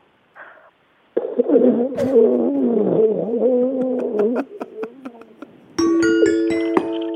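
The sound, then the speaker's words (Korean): A voice imitates the groans of a sore, upset stomach from gastroenteritis: a short grunt, then a long wavering, strained moan with crackly clicks, ending in a bright, sustained ringing tone. “이게 땡치기가 딩동댕 치기가 애매모호했는데 장염 걸려서 배 아픈 소리 다시 한번요.”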